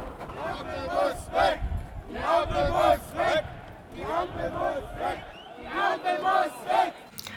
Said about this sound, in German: Auf dem Riebeckplatz in Halle, der trotz eisiger Kälte von allen Seiten gut gefüllt mit Protestierenden und Treckern ist, sieht man vor allem regierungskritische Plakate und Botschaften.